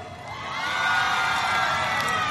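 A large crowd, the fan club of singer Shin Yu, cheers and screams continuously at the host's call to shout, a dense wall of high-pitched shouting and whoops that swells slightly and stays loud throughout, with no single voice standing out.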